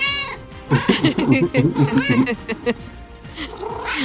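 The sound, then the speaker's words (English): A cat meows, a drawn-out rising cry, then a burst of chattering, yowling vocalizations, followed by a few shorter meows with brief pauses between. “Was it really that bad of a pun, kitty? What's the matter? Not gonna tell me? Cat got your tongue?”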